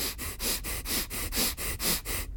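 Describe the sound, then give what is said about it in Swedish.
Rapid, forceful breathing in and out through the nose as a breathing exercise, about ten quick, evenly spaced sniffing puffs in a steady rhythm, fairly loud, with no talking. “Och då, då ska du genom näsan andas ut och in väldigt fort i 15 sekunder. Så att det låter så här.”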